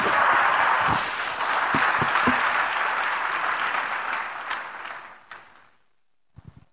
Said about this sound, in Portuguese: Aplauda o Senhor, aplauda o Senhor Jesus.